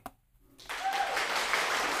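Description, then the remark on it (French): After a brief quiet moment, steady applause starts and holds at an even, fairly loud level to the end, a dense rush of many overlapping claps with no talking. “je peux m'applaudir. Je peux m'applaudir.”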